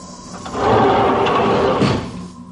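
An electronic sliding door opens at night onto fine rain and a light wind, with a steady mechanical whoosh that swells, holds for over a second, then fades, a faint low hum underneath and no voices.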